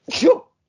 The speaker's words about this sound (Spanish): Ah, iba a estornudar.